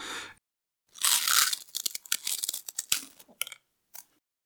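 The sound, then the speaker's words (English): Loud crunching as people bite into various crunchy cookies: a dense burst of crackling bites followed by scattered sharp crunches and crumbly snaps, with no talking. “That's also the uh, our intro sound is us biting into various and copious amounts of cookies.”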